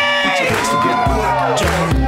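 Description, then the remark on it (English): A crowd at an MTV event cheers and claps loudly and steadily to welcome the special guest host, JC Coccoli, with whoops rising over a dense, continuous wash of noise and a thumping low beat underneath. “Put your hands together for your special guest host, JC Coccoli!”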